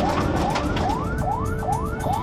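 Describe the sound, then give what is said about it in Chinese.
A police car siren wails as police car 311 clears the way en route to an arrest, in a fast, repeating pattern, each tone sweeping upward roughly twice a second, loud and steady over a constant rumble of traffic. No one speaks. “我要那个小杨哥的警车三幺幺开开道行啊。”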